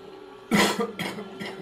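Three harsh, barking coughs in quick succession, the first loudest and longest, the next two shorter and a bit weaker, with no talking.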